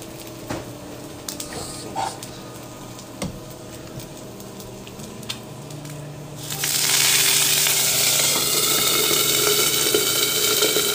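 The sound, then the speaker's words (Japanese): A breakfast fried egg and vegetables sizzle in a pan, starting as soft scattered crackles and pops, then suddenly surging into a loud, steady, hissing sizzle that continues to the end. “そうこうしてるうちに結構焼けてきた感じですね”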